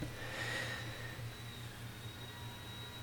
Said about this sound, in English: Anyway, so if you hear that that whining noise in the back, that is our Roombas downstairs cleaning up.